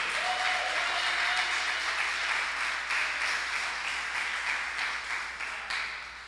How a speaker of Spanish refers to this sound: Den un aplauso al Rey.